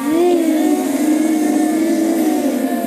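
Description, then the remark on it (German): Several children hum together in a steady, sustained buzz, imitating a bee's drone, loud, with a slight rise in pitch at the start and no words spoken. “Plötzlich hört sie ein Summen. Wer könnte das sein? Eine Biene. Zuerst leise und dann immer lauter. Könnt ihr mal summen für mich?”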